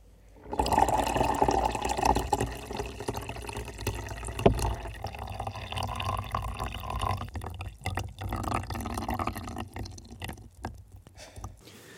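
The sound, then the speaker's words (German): Water is poured on during an experiment in a steady, splashy stream for about eleven seconds, fairly loud, with a few gurgling bursts before it stops. No one speaks. “Ach so, bisschen Wasser noch drauf.”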